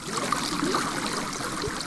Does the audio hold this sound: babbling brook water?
yes